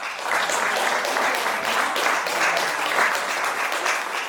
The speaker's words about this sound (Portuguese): E vocês aqui a baterem palmas.